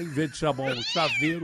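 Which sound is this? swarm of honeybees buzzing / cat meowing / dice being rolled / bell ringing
cat meowing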